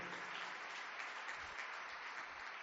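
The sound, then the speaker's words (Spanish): Steady audience applause for brothers watching live from the United States and Israel: a dense, even crackle of many hands clapping together, holding at one level for a few seconds with no voices over it. “Damos un aplauso para ellos, que lo oigan bien fuerte.”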